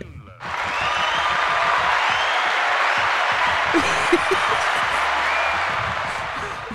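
A round of applause bursts in suddenly and holds at a steady, dense level of many hands clapping, with a few brief whoops rising above it before it eases slightly at the end.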